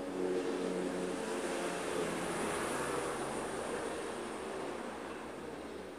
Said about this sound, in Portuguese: Esse helicóptero passou perto pra caralho. Vocês ouviram aí? É, eu, acho, eu, eu espero que o microfone tenha pegado o som.